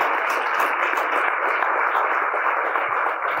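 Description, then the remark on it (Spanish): An audience applauds steadily for a few seconds, a dense, even wash of many hands clapping at once, loud and unbroken, with no voices over it. “Yo creo que hoy me voy a aplaudir yo solo porque ustedes ni ganas de aplaudir.”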